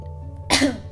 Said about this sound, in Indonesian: Duh batuk lagi Suara batuk gue kedengaran kagak Tuh kan tes-tes